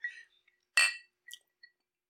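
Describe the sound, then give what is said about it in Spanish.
Glasses clink together in a toast, a bright ringing tap followed by a few lighter clinks and a faint high chime, clear with no one talking. “Salud por este episodio.”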